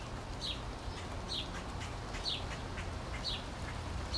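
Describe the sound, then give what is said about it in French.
Birds chirp in short, repeated calls about once a second over a steady wash of falling rain, with no voices present. “Au son de la pluie et des oiseaux, c'est une invitation à détendre chaque partie de ton corps, en passant par les cuisses, en relâchant complètement les hanches, en détendant la mâchoire, en décontractant les épaules.”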